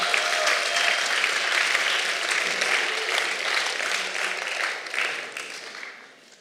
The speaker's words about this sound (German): Ein Applaus für euch.